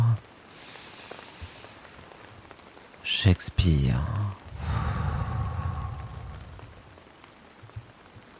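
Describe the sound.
Soft, steady rain hisses in the background throughout, fairly faint and even. Midway a voice speaks briefly, followed by a long, audible breath out.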